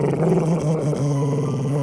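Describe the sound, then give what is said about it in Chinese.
A deep, rough growl from a monster in a dark room aboard a ship rumbles steadily for about two seconds, low-pitched and gravelly, holding an even loudness without pause and with no voices present. “米露疑惑地走进了房间，但突然他听到了一声低吼声。”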